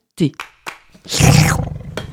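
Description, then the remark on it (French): A person imitates a tiger's roar: a few short breathy bursts, then a long, loud, gravelly growl that swells and trails off. “le tigre engloutit le pâté. Pas encore satisfait, il se trémousse et gronde.”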